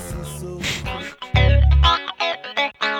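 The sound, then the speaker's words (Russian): A song plays with pitch-shifted, heavily processed vocals in short sung phrases, carried over a strong low bass that swells loud in the middle, all full-sounding. “Ну, он, естественно, здесь подпиченный по-другому, и звучит, конечно, по-другому, но Нет, понятно, ну понятно, что это он.”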